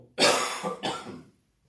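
Fairly loud throat clearing in two rough bursts, the second following quickly after the first, with a short tickly cough quality before it fades to silence.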